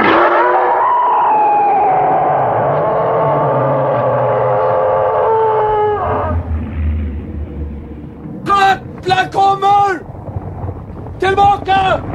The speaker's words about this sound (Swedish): När de kommer och blåser i Tengils horn. Ja, och den rullar upp så är det lite mekaniskt.